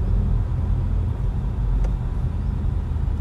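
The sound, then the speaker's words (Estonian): Steady low road rumble and tyre noise from a car driving along Narva maantee, a main road, heard from inside the vehicle, with a constant dense drone and no voices. “et siis, kui see välja paned, siis läheb selle tavalisele normaalile Narva maantee peale korraks välja.”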